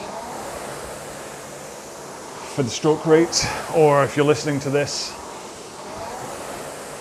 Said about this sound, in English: then you can hear the whoosh, whoosh of my flywheel. And that's how you know.